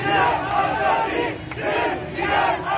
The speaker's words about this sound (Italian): cori che sentite dicono morte all'Ayatollah, morte alla guida suprema dell'Iran, Ali Khamenei. Poi ci sono degli uomini che cantano ucciderò chiunque ammazzerà mia sorella e molte donne che cantano donna, vita, libertà.